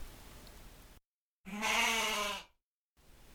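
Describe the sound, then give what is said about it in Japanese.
A single drawn-out goat bleat from the video game Goat Simulator, loud with a wavering, harmonic tone, lasting about a second between stretches of faint background noise and brief silence. “ヤギどこ走ってんだ”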